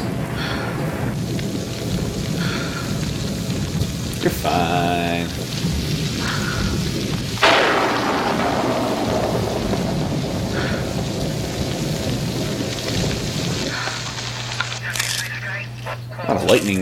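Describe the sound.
Steady rain hisses throughout while thunder rumbles low underneath, with one sharp, loud crack near the middle that rolls away slowly. Faint voices may be mixed in beneath the storm.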